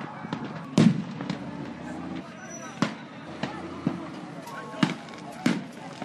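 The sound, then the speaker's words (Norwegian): Sharp fireworks bangs go off irregularly, about six loud cracks over a few seconds, over a steady rumble of background noise and indistinct activity, as fireworks explode around rescue workers digging in ruins and spraying water on fires at the San Pablito fireworks market in Mexico. “Mens de graver i ruinene og spyler vann på de mange mindre og større brannene, smeller det rundt ørene på dem fra fyrverkeri som går av.”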